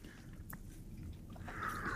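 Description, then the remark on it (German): Slurping of a fizzy orange lemonade, a wet, airy sucking noise that runs continuously and swells louder near the end, with no talking. “Da darf man schlürfen.”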